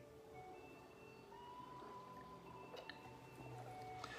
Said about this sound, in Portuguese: Meus irmãos, meus amigos, deixa eu beber um pouquinho de água aqui.